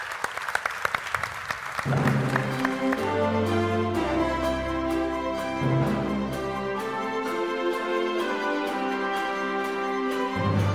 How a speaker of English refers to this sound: I would like to thank you all for being really part of this creative industry in such a beautiful way, and I think they're all worth a great round of applause.